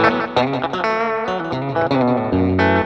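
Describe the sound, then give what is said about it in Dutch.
A Telecaster electric guitar, played through a pedalboard with slapback delay, plays a quick run of bright, twangy chords and notes, loud, with a short slapback echo trailing each attack. No one speaks. “door dat, door die telekaster. Door de telecaster ja.”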